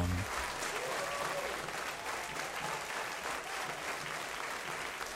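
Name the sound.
concert audience applause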